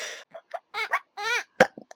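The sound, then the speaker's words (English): Someone voices a quick string of short, babyish gurgles and squeaks, then a sharp burp-like pop, imitating a baby burping; no actual words are spoken. “I can even make the baby burp.”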